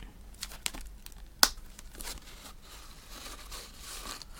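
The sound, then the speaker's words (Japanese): Toothpick ASMR: soft, dry crackles and tiny clicks in an irregular patter, with one sharper, louder snap early on, then quieter rustling crinkles. No voices. “この、こういうね、こういう音を取るわけですよ。ASMR でね。”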